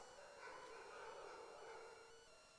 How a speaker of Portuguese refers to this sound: O cão está furioso.